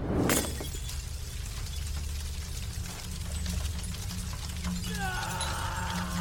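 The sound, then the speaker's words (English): A glass bottle with gasoline, thrown into a car, shatters with a sharp, loud crash at the start. A steady roaring rumble with faint crackles then continues, and thin high whining tones rise near the end. “I got myself a bottle, some gasoline, and I threw it in the car with him.”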